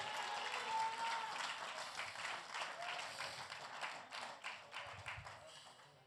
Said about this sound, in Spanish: Del aplauso fuerte a la gloria de Jehová.